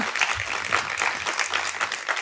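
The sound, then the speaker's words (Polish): A live audience applauds: dense, steady clapping from many hands fills the whole short stretch at an even, fairly loud level, with no talking over it. “nie wiem, jakieś oklaski, okrzyk, żeby połączyły się te ekipy, które są na miejscu i które są na zewnątrz.”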